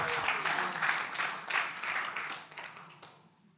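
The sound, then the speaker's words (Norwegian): A crowd bursts into sustained applause for Jesus, dense clapping from many hands, holding steady before gradually thinning and fading away toward the end. “Gi han en skikkelig, skikkelig applaus.”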